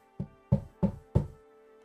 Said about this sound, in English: A, a knock comes on your door.